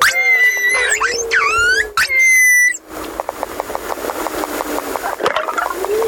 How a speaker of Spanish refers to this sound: Esto es una madre cría. Oigan la llamada de respuesta. Ahí estaba la madre y la cría. Estos son los calderones. Son calderones, un calderón mamá comunicándose con un calderón hijo, niño. Una llamada, respuesta.